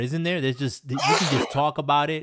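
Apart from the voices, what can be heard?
sneeze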